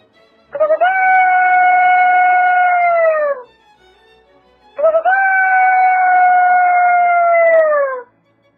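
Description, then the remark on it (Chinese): A person imitates a rooster crowing with their voice: two long, sustained, fairly high-pitched calls separated by a short pause, each holding steady before sliding down at the end. “啊，然后是鸡叫。”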